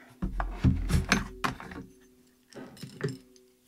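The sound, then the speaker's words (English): A metal spoon, set upside down with its lip on the rim of a glass while a drink is being made, clinks and scrapes against the rim, a quick cluster of bright taps with a faint ringing tone, then a short pause and a few more clinks. “So I thought, no, the spoon is meant to go upside down. See this little lip here? This sits on the edge of the glass like so.”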